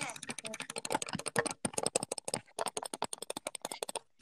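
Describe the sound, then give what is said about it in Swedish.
Rapid, steady clicking of keys on a computer keyboard, fairly loud, with a brief pause partway through before the typing resumes. “Och vänta, tangentbord.”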